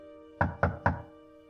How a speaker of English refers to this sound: She was awoken by a dreaded knock on the door.